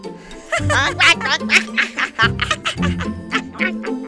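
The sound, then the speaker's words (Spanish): A voice imitates geese cackling, a run of rapid, nasal honking bursts in quick uneven succession, fairly loud, with no actual words. “Crasnaron todos los gansos, pero la cigüeña hizo como si no los oyera.”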